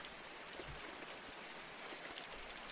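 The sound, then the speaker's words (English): Steady, soft rainfall patters continuously outside a window, a dense hiss of drops at low volume with no voices, even and unbroken throughout. “You try to focus on the gentle sounds of the rain outside your window.”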